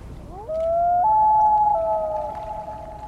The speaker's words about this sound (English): To hear a common loon in the wild during the summer, you'll need to find a northern freshwater lake where a pair is nesting. But to find that same common loon in winter, you'll likely need to look on a saltwater bay.